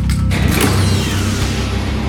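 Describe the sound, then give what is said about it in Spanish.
Denver opens the heavy door to vault chamber 2; it swings open with a loud, grinding creak and mechanical rattling, sustained for about two seconds with no voices. “Denver abre la puerta.”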